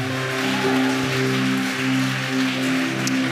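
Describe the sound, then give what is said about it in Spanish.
Steady applause from a church audience clapping for Jesus, a dense crackling patter of many hands clapping continuously over sustained keyboard or organ tones, with no voices speaking. “Dale ese fuerte aplauso a Jesús.”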